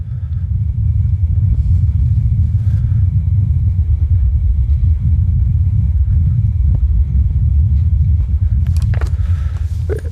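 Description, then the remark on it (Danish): A steady, heavy low-frequency rumble of wind on Mars, recorded by the Perseverance rover, fills the whole recording, loud and continuous with slight fluctuations, and a few faint brief clicks near the end. “Jamen altså, det er jo en optagelse som, øh, som den bil, der hedder Perseverance, som står op på Mars og som landede for øh, et, lidt over et år siden.”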